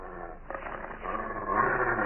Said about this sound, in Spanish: Apunta cuidadosamente con el revólver hacia los ojos del enorme perro y va a disparar cuando...